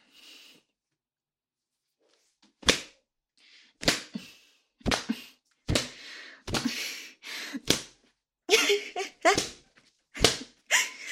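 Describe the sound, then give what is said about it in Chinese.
A run of about ten sharp, loud lashes from a leather whip lands at an uneven, quickening pace, each a crisp smack. Breathy gasps and panting fill the gaps between strikes. “只能再用这根鞭子继续调教你了。”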